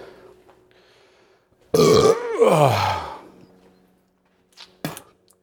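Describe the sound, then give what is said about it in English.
A loud, drawn-out belch after eating a very spicy chip, rumbling and wavering in pitch for over a second, followed by a brief gasp and a short breathy sound. “I'm not sure if this is a puke or a belch.”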